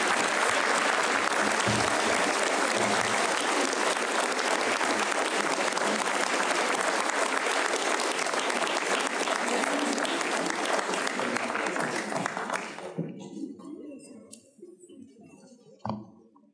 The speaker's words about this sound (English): And with the pastor's permission, I just ask the congregation to stand and give a rousing round of applause to this great woman of God, this servant of the Most High King,